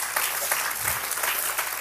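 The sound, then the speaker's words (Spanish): A crowd claps loudly and steadily for the Father, a dense wash of many hands filling the whole stretch without pause or talk. “Si le va a aplaudir, apláudale bien fuerte al Padre.”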